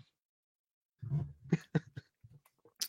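dog barking excitedly

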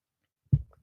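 person drinking water

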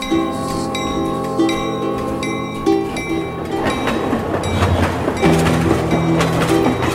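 train running on rails

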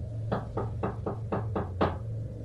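knocking on a door

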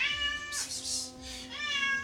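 kitten meowing

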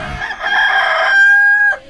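rooster crowing

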